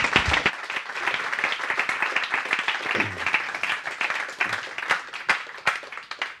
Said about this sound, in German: Und nochmal einen riesen Applaus.